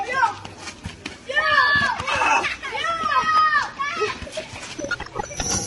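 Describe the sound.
Children play with a simple plastic ball, several young voices shouting and calling out excitedly in overlapping bursts, lively, with a busy background of more kids.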